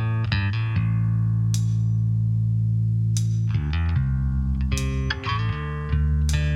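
A pop song's intro plays loud and close: heavy sustained synth chords over a deep steady bass, with bright percussive hits recurring every second or so and no singing yet.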